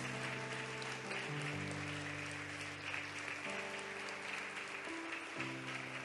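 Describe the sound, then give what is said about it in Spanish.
An audience applauds the church's men steadily for several seconds, a dense wash of clapping over sustained organ or keyboard chords that shift pitch underneath. “Un aplauso, por favor, para sus varones.”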